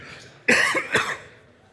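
A pastor at Midtown Church in Austin coughs right into the microphone before a church message: two sharp coughs in quick succession, loud and harsh, followed by a brief fading rasp and quiet.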